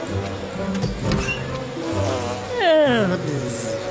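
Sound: bees buzzing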